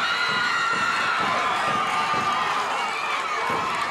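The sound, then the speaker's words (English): A large crowd at a ringside event yells and screams continuously, a dense wall of overlapping voices and cheers, loud and sustained with no clear individual words. “the people again, are yelling, screaming.”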